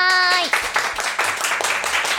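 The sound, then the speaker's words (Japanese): Dense, steady applause welcoming a guest on a radio show, many hands clapping, running for about two seconds after a brief tonal sound fades out at the start. The clapping stays loud and even throughout. “拍手でお迎えくださ”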